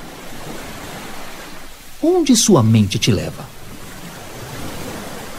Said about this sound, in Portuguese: Ouça o barulho do mar.